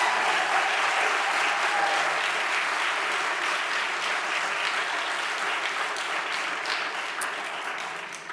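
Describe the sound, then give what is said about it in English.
A large audience claps steadily in sustained, dense applause that holds strong for several seconds before gradually tapering off toward the end, giving a woman a great hand. “you her a great, great hand?”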